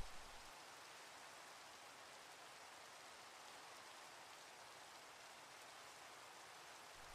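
Steady rainfall hisses evenly throughout, a dense wash of drops pattering on surfaces with no pauses or voices, holding at a constant, moderate level from start to finish.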